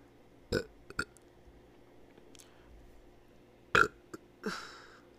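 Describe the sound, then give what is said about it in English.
A burp with a few short, throaty bursts, a sharp one near the start and another later, followed by a rougher, drawn-out belch sound, with no talking. “That burp was actually so relieving towards my congestion.”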